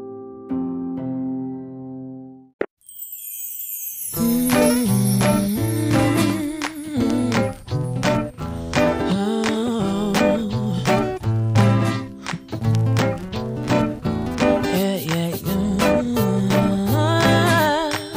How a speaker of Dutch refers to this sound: Laten we samen luisteren naar het liedje … van ….